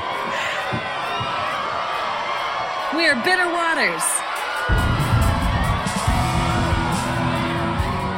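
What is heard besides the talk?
crowd cheering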